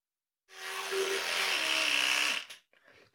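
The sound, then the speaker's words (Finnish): An electric toothbrush buzzes steadily for about two seconds, a fairly loud motorized whir, then cuts off, followed by a few faint rustling sounds. “Ja, ja tota, sitten sitä tietoa voidaan käyttää nimenomaan tällaisissa ohjeistuksissa, että nyt jäi vähän lyhyeksi tuo hampaidenpesuaika ja että siitä tehdään ikään kuin semmoinen kommunikoit uudella tavalla sen hammasharjan kanssa.”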